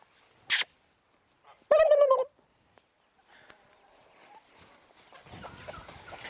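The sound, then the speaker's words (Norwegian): A short squawk, then one loud, harsh honk from a goose, followed by softer, scattered cackling over a rising rustle of movement and background noise. “Jeg lurer på om du skal stå der i tilfelle gjessene vil løpe inn.”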